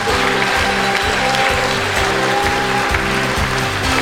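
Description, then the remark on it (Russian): Steady, dense audience applause, loud and continuous, with music playing underneath for the whole stretch, thanking a vocal ensemble from Yevpatoria at the opening of the All-Russian Educational Rehabilitation Forum. “Давайте еще раз их поблагодарим аплодисментами.”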